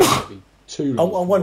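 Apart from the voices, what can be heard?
sneeze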